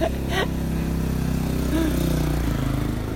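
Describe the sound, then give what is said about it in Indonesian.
A motorcycle engine in fourth gear drones steadily and loudly for the whole stretch, a low, labored hum that sounds like it is straining under load, with a few faint higher chirps above it. “Motor ngeden gitu Empat ini gigi empat”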